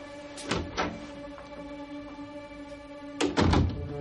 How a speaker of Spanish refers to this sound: La marquesa abre una puerta de cristales de espejo.